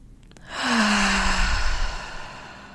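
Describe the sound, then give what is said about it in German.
One long, deep breath drawn in during a breathing exercise, filling the belly and solar plexus, a soft airy rush lasting over a second with a faint voiced edge, then fading into quiet. No one speaks. “Und wirklich jetzt hier einfach diese, diesen kurzen Moment einmal nutzen, um wirklich bewusst tief in deinen Solarplexus zu atmen und zu spüren.”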